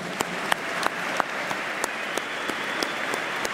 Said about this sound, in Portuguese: Um aplauso para o grupo parlamentar da Iniciativa Liberal.